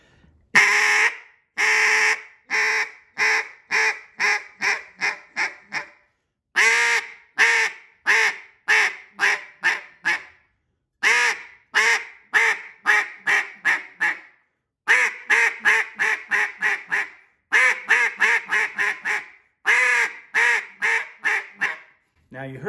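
A duck call blown to demonstrate a quacking cadence, in repeated sequences, each burst a run of sharp, nasal quacks that start loud and taper off in quick descending rhythm, clear with short pauses between series.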